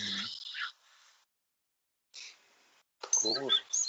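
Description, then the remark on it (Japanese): A small bird chirps in short, high-pitched bursts, with a voice talking over the later chirps. “誰この小鳥のさえずり。”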